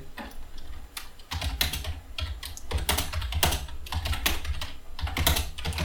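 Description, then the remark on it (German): Rapid clicking of keys on a computer keyboard, fairly loud, in quick irregular bursts with a low background hum underneath and no one speaking. “kannst du bitte aufhören, eine Tastatur zu verwenden? Das stört sehr doll im Podcast.”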